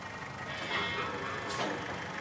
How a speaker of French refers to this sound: au milieu du cimetière de voitures, le moteur d'une machine tourne. La tôle se froisse sous la pince d'un bras mécanique. Le toit compacté crisse sous la pression.